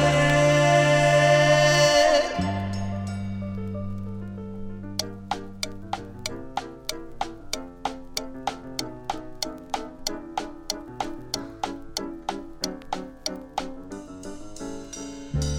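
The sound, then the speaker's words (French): A clock ticks steadily, about two sharp clicks per second, over low sustained musical tones. It starts after a few seconds that open with a bright, ringing held tone, and no one speaks. “Le jour s'achève, l'horloge a sonné.”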